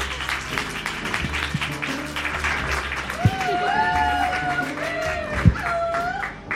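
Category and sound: crowd, audience applause and cheering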